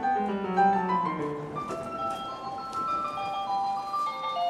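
A train station arrival jingle in the Tokyo area of Japan plays a short, cheerful electronic melody of chime-like tones that helps passengers know when to get off, steady and fairly loud, with a faint hum of background noise and no voices.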